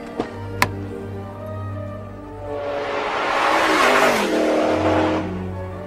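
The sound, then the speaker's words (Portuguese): A car carrying two young men revs up and accelerates hard at high speed toward a building, rising to a loud, broad roar that swells in the middle and then settles back to a steady low hum, with two sharp clicks at the start. “Os dois rapazes subiram naquele carro e, em alta velocidade, avançaram até o prédio onde a explosão havia acontecido.”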